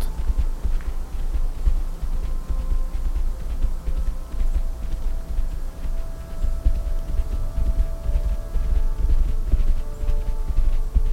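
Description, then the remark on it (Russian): A horse's hooves pound in a quick, steady galloping rhythm as it gallops toward the listener, the repeated thuds continuing throughout over a low rumbling background, with no voices. “вы все еще мало что знаете о конях, но уверены, что это намет.”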